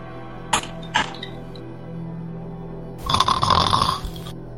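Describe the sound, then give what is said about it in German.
A voice imitates snoring with one drawn-out, rattling snore about a second long, fairly loud, preceded by two short sharp clicks or sniffs against a quiet low hum. “Das Einzige, was sich ab und zu ein bisschen stört, ist das Schnarchen”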